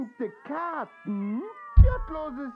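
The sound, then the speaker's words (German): Cats yowl in a string of drawn-out, wavering wails that rise and fall in pitch like screaming children, loud, with a brief low thump partway through. “das klingt, als würden Kinder schreien.”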